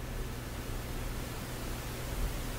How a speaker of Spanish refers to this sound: Editar. Ruido equilibrado. Seleccionado. Ruido equilibrado.